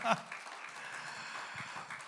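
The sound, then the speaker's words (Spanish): A church audience claps steadily in praise of the Lord for a couple of seconds, a dense wash of many hands at moderate loudness, with scattered voices calling out underneath. “Fuerte ese aplauso de alabanza al Señor.”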